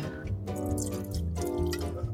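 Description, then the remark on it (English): Wine poured into a glass, a steady gurgling stream whose pitch rises as the glass fills, then a second pour begins; no one speaks. “Can we drink some wine?”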